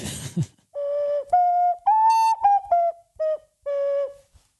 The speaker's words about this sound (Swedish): Och som min vita sak så har jag en flöjt som jag köpte i Peru som är handgjord.